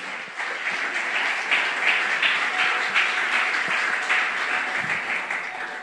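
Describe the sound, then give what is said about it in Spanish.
A church audience bursts into sustained applause for the Lord, a dense, steady wash of many hands clapping at once that holds at a fairly loud level for several seconds, with no voices standing out. “Alguien que dé un aplauso bien fuerte al Señor.”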